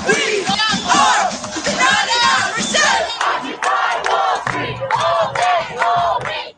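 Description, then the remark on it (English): A large protest crowd in the streets shouts and yells together in loud, overlapping bursts, a dense roar of many raised voices rising and falling continuously for several seconds. “Public outrage poured into the streets.”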